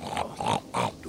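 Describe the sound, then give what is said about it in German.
A domestic pig oinks three times in quick succession, short nasal grunts with brief gaps between them, fairly loud with no one talking. “Ihr seid Hausschweine.”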